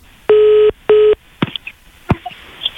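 A telephone ringing tone over a phone line as Radio Sinar calls a listener: two steady, buzzy tone pulses in quick succession, fairly loud, followed by a few faint clicks and line noise. No one speaks.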